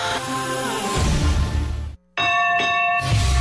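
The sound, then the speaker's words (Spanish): A loud, bright boxing ring bell clangs and rings on to start the first round of a boxing bout, drops out for a split second, then resumes with fresh strikes and a lingering metallic ring. “Suena la campana, comienza el primer asalto del combate.”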